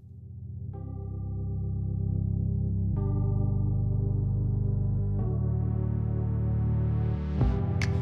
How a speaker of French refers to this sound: Prenons une pause musicale avec … et ….